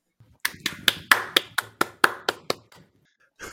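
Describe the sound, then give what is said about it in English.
A quick run of about ten sharp hand claps at a steady, brisk rhythm, each crisp and bright, fading briefly at the end before a softer sound begins. “I need to applause on here.”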